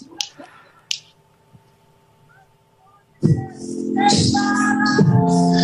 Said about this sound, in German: wo mein Kollege Joachim Mangert jetzt vor einer tobenden Menge auf der Bühne des Szene Open Air steht